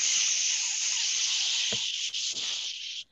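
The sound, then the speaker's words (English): A voice imitates a long, steady hairspray spray: a continuous bright hiss held for about three seconds, with a couple of tiny breaks near the end before it cuts off. “and you know it wasn't just like a quick little spray.”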